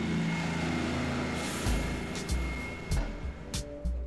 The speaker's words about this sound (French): Juste quelques bus qui passent, au petit bonheur la chance.